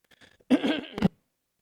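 A harsh cough bursts out after a moment of faint low rumbling, rough and throaty with a sharp final hack, then silence.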